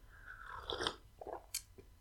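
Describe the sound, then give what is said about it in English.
Quiet mouth sounds of someone sipping freshly made decaf coffee, a short slurp followed by a few soft wet clicks and a swallow, with no talking. “I'm just gonna take a sip of my coffee.”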